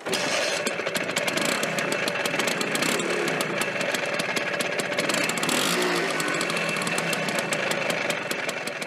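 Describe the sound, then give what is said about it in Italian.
A small engine buzzes steadily, like a Vespa scooter, with a rapid rattling pulse running through it for the whole stretch and no voices. “e quindi immaginatevi quel ronzio”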